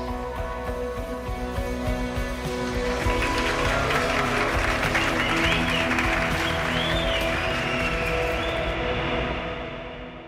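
Dense, sustained applause from a crowd at a wedding party held in October 2018, the day before the first round of the presidential election, swelling after a couple of seconds and staying loud, with steady tones and a few high whoops riding over the clapping.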